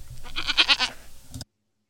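A single loud goat bleat, close and quavering, with a rapid wobbling tremble through its cry for over a second before cutting off into silence.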